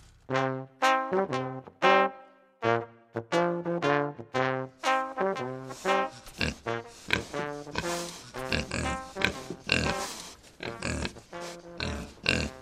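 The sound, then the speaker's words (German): Two piglets at the Heuhotel Fischbeck in Forra in the Pegnitztal oink and squeal in quick, repeated bursts, starting as separate high-pitched calls, then crowding into a louder, busier, grunting clamor with no voices. “Zwei muntere Ferkel begrüßen die Gäste des Heuhotels Fischbeck in Forra im Pegnitztal.”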